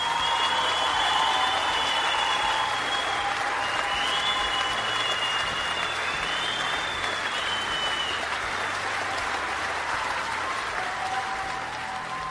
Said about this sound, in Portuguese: Editor, uma salva de palmas para o nosso editor, só para ficar mais difícil. Não, não, não, não. Nada, nada ao vivo, nada ao vivo. Quero, quero efeitos, efeitos, efeitos, efeitos da, da técnica, como diria Léo Lopes.